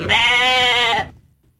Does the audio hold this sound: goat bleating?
yes